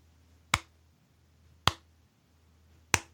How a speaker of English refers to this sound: That's a slow clap for Gene Jackson for without question the most interesting way to get to that joke ever.